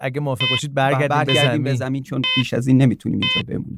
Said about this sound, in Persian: بسیار خوب این صدای بوغ به ما میگه که سوخت ناتیلوس رو به اتمام